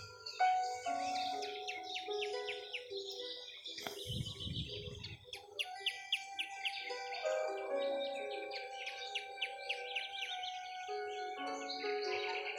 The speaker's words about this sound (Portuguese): Deixe o som dos animais, dos pássaros cantando, irem lhe levando para o seu lugar seguro.